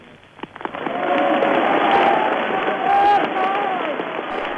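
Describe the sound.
A large crowd surrounding General Charles de Gaulle as he walks at the Arc de Triomphe in Paris cheers and applauds continuously, a dense wash of clapping with shouting voices and whistles rising above it, sustained and loud throughout, with a few sharp claps near the start.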